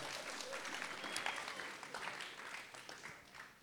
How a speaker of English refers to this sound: Pat yourselves on the back, give yourselves a clap. It is so, so good.